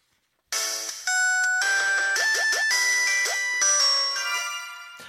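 signal or alarm, telephone ringing

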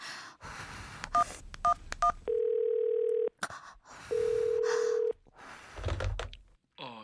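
signal or alarm, telephone keypad dialing tones

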